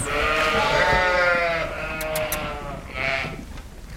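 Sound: lambs bleating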